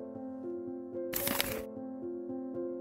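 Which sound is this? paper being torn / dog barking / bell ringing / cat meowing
paper being torn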